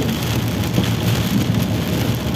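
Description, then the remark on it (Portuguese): Heavy rain pours down in a dense, unbroken roar, loud, with a steady hiss and low rumble that never lets up. No voices are heard. “e agora está a chover para caralho, e estou a aumentar o, o, o meu tom de voz”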